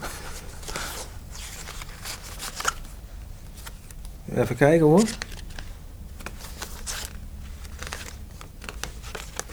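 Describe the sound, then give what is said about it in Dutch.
Cards being pulled from a breast pocket: soft papery rustling and crinkling runs through the whole stretch, with a brief spoken remark partway through. “Oh, ik er komen allerlei i-kaartjes uit, de borstzak.”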